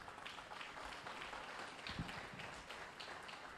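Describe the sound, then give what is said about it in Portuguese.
An audience applauds to praise God during a sermon, in a steady, dense patter of many hands clapping at once, sustained at an even, moderate level for several seconds with no voices standing out. “Aplaude a Deus por isso.”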